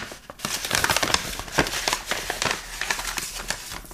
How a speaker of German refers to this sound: Und zwar habe ich ja einen Umschlag mit Begriffen aus der Hundeszene. Und ich würde da einmal drin rumkruscheln.